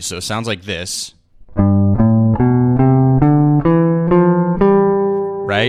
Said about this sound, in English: So we're doing a G7 chord. So you're basically starting the C major scale on the G and ending on the G.